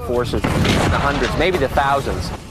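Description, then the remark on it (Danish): A tank fires a cannon shot, a heavy blast that booms and rumbles loudly, its low roar spreading beneath a man standing in front of the tank who keeps talking through it. “Han står foran en tank, som fyrer et skud af, så det runger i ørerne.”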